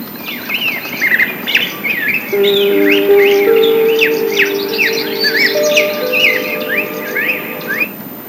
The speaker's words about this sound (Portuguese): Então foi aí que eu ouvi os pássaros.